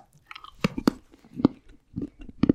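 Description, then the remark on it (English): Someone eats a piece of Rebel Chocolate from a bar, with several crisp, irregular crunching bites and moist chewing between them. No one speaks. “Don't chew chocolate, kids. Suck chocolate, especially when it's this good.”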